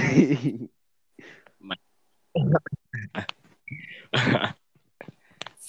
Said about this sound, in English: if you're gonna clear it, throat, clear it somewhere else, man. No one wants to hear you. We're living in rough times, bro. You're not wearing a mask now. You're busy coughing in the camera and in the mic. Bro, relax.